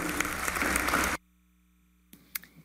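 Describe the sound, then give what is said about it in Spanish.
An audience at an award event at the Universidad Nacional Pedro Enríquez Ureña breaks into loud, dense applause for employees for about a second, then it cuts off abruptly into near silence, followed by a few faint, scattered sounds. “Y aquí les voy a pedir un aplauso a muchos de mis empleados que están aquí y que han venido.”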